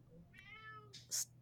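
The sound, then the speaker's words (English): A single drawn-out meow from a pet cat, fairly quiet, followed by a brief breathy, hissy burst over a low background hum; no one speaks. “that's sorry, that's my cat.”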